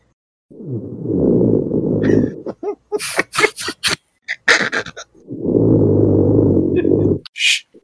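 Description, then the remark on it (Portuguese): A man snores loudly, two long rumbling snores separated by a pause filled with brief rustling or murmured sounds. “Tá, mas ele parou de roncar. Ele parou de roncar. Ah. Oh, não. Aí voltou, voltou, voltou, voltou, voltou.”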